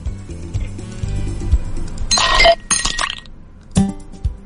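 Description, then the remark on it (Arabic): Ice cubes clink against a glass of water in a few bright bursts, with a short cluster of rattling taps and then a final sharp clink over a low background hum. “أه، ثلج مويه بس كذا ايه مثبت”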